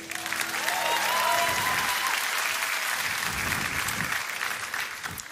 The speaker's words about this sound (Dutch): Ik wil allereerst echt een enorm applaus nog een keer voor deze fantastische band.